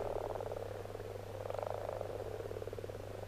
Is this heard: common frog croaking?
yes